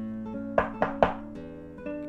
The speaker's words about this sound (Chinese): 有一天晚上，忽然起了一阵可怕的暴风雨，天空当中打着雷，闪着电，下着瓢泼大雨。正让人感到害怕的时候，这时有人在敲门，